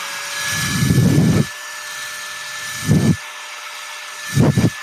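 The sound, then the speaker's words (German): An electric keyboard air blower whirs in three separate bursts: a longer blast, then two shorter ones, each with a steady high-pitched whine over a low rushing roar. No one speaks. “Das ist so ein, so ein Tastaturgebläse.”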